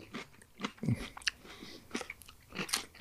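Crisp crunching as someone bites into a crunchy snack and chews, with irregular sharp crackles and softer mouth sounds spread across a few seconds, no talking.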